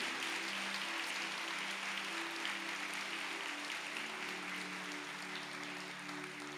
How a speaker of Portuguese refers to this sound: Manda um aplauso pela galera, pela, pela vida dos pastores que estão aqui.